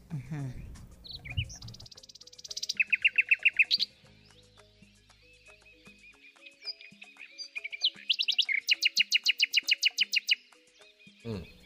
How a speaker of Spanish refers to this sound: Ponme ahí el sonido del ruiseñor, por favor.